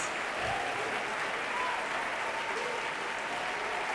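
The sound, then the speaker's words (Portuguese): An audience applauds God steadily, dense overlapping clapping at an even, fairly loud level for the whole stretch without letting up. “Vamos aplaudir mais ao nosso Deus.”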